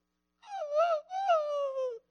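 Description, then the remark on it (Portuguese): A person's voice imitates a scolded dog being told to go away, whimpering with two drawn-out, high nasal whines, the second sliding downward in pitch. Moderately loud, with no other noise around it. “Porque quando você está bravo com o cachorro, você fala assim: sai daqui, vira-lata. Sai daqui, não sei. E o cachorro põe a.”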